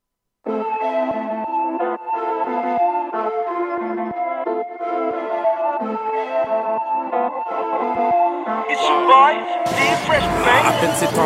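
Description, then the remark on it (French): A rap track plays loudly and steadily, with layered sustained melodic tones under a vocal line, building near the end into a dense, noisy burst as the beat kicks in. “gros banger, ça rentre, rien à dire. Fait qu'on va lui faire entendre ça maintenant”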